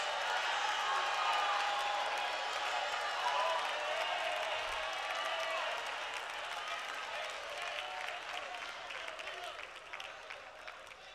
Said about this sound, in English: I wonder, can we make that sound this morning? can we make it outside of the clapping of our hands? I wonder if we can open our mouths and make that sound in the house.